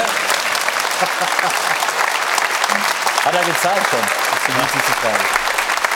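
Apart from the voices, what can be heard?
child clapping hands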